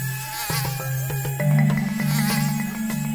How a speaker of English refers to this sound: As we pressed deeper into the swamp, thousands of mosquitoes swarmed us in a cloud, biting our exposed skin.